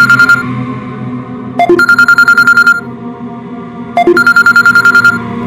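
A mobile phone ringtone rings loudly and up close, a bright pulsing electronic trill that repeats in regular bursts with short tonal blips between them, with no voices.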